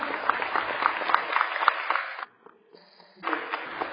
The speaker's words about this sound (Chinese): 好，那今天愿意在现场学习的各位啊，是不是成长型心态的人呢？是。好，请给成长型心态的自己一个热烈的掌声好吗？